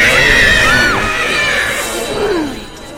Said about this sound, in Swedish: Hör så jävla hemskt skrik från det här jävla hålet när man lyfter.